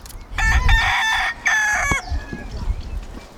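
A rooster crows loudly in two long, strained bursts of cock-a-doodle-doo, the second trailing off into a fading wavering note, with no voices present.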